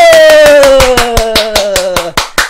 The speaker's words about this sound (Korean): 박수!